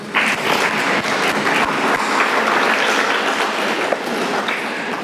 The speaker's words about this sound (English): Let's give our mothers a round of applause. What do you say?